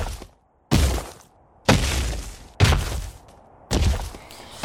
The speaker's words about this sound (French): Sanglier, renard, lièvre et souris entendent d'énormes bruits de pas.